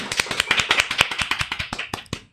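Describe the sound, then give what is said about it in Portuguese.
A short burst of applause in a studio in São Paulo: quick, crisp hand claps in a dense, uneven patter, loud and steady for about two seconds, then ending with a few last claps. No one speaks. “Minha gente, uma salva de palmas, muito bem.”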